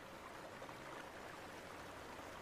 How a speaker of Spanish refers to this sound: Al fin, vieron el río Nunca antes habían visto un torrente tan hermoso y grande.